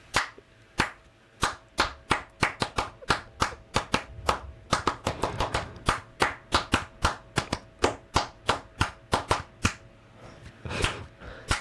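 Crisp hand claps pick out a song's rhythm during a radio broadcast, in uneven, syncopated groups, some fast runs and some spaced beats, repeating for several bars with no voices.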